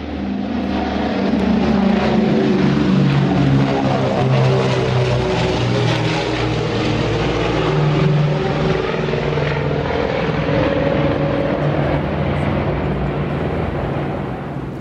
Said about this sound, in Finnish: Moottorien ja potkurien keskenään resonoiva ääni oli todellakin upea.